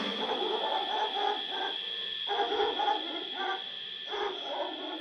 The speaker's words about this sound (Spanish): A lo lejos, un perro.